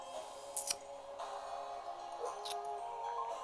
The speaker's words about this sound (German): So, jetzt würfeln sie wieder. Sie hat einen Dreierpasch.